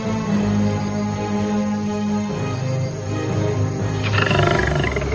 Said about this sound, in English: Then there is a roar. A lion walks out of the woods majestically.